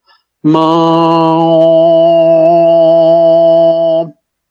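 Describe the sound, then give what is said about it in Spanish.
A single steady note sung on the syllable "ma", held for about three and a half seconds, loud, with a bright, buzzing nasal overtone added to the normal voice and ringing above it. “Entonces yo le añado, le añado un sonido nasal.”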